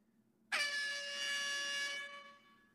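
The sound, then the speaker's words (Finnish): One loud DJ air horn blast cuts in abruptly, a bright, brassy sustained honk rich in harmonics that holds for about a second and a half before fading. No one speaks. “Ihan siis toi, toi DJ tolanen niinku niin. horni.”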